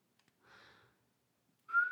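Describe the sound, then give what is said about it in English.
A person whistles a melancholy tune alone, a soft breathy phrase followed after a pause by a louder, clear sustained note that slides gently upward; no one speaks. “still summer evening has often heard a voice at a distance whistling a melancholy tune among the tranquil solitudes of Sleepy Hollow.”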